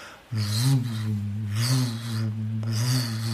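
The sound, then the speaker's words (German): A voice imitates a deep, steady humming drone, holding one low buzzing tone for about three seconds, with breathy rasping noise swelling in and out over it. “Also so ein Brummen war da.”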